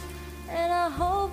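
A steady hiss of falling rain, dense and even throughout, with a soft sustained melody rising over it partway through.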